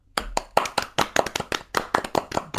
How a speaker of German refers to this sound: Das ist eigentlich ne? mal ein Applaus ne? wert jetzt eben, oder?